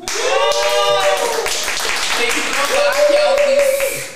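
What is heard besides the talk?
audience clapping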